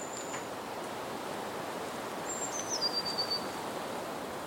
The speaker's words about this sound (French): Alors dans la forêt il entre, et maintenant le cœur en fête de l'air exquis il s'éjouissait, et le ravissait le chant qu'il entendait, des oiseaux pépillant avec allégresse.